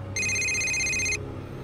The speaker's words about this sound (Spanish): Alguien estaba marcando a mi celular.